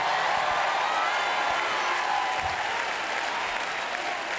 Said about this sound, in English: If you're in a desert place, clap your hands and give him some praise right now.